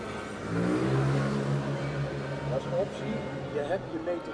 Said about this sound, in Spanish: Motos hacia un lado, bicis hacia el otro y siempre puntuales, las campanadas de la Grote Kerk o iglesia gótica de Nuestra Señora